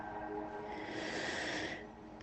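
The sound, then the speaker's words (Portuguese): A single long, deep breath drawn in, a steady airy rush lasting nearly two seconds before it tapers off into quiet. “Basta com que você preste atenção na sua respiração. Respire.”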